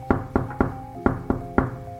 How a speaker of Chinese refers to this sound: 谁在敲门啊？小鼹鼠走过去开门，发现一只小松鼠站在门外，一直抖，一直抖，在寒风中抖得像那个要凋零的树叶一样。